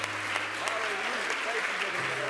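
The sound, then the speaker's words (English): An audience claps hands in praise to God, a dense, sustained burst of applause filling the room, with faint voices and a low hum underneath. “Why don't we one more time give God a big hand clap of praise for what He's doing all across the world?”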